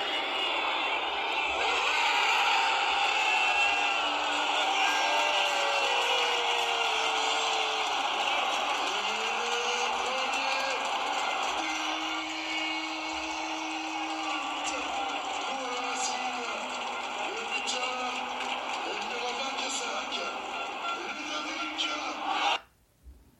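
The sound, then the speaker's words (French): A huge stadium crowd roars and cheers in celebration of a penalty goal, a dense, continuous wall of voices with rising shouts and chants that stays loud for over twenty seconds before cutting off abruptly. “Habe ich eine Aufnahme vom Tor gemacht.”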